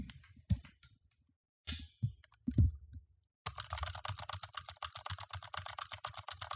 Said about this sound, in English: Gateron Alias switches, which are the switches that I personally use with my own keyboard, which sounds very good and pretty. Um, sounds like this.